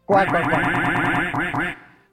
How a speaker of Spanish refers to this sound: No, no, otro pato, por favor.